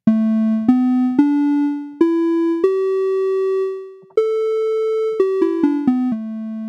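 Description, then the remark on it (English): Synthesized tones step up a pentatonic scale one sustained note at a time, then run quickly back down in short notes. The tuning was analyzed from a recording of the mbaire, an African xylophone played by a group from Kampala, Uganda; the tones are clear and steady, with no voices. “So that's a, a pentatonic scale that that has a really beautiful, beautiful character to it.”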